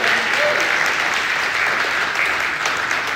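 A crowd breaks into a big round of sustained applause honouring someone for serving them that day, dense rapid clapping that stays loud and steady throughout, with no one speaking over it.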